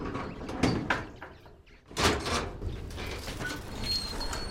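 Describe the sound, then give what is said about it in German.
A heavy, stiff farm gate in a high fence around a farm grinds and scrapes open in a few stiff, juddering pushes, with a loud creaking burst partway through, then a steadier rasping slide; faint birdsong sounds in the background. “Besucher lässt er durch ein etwas schwergängiges Tor hinein.”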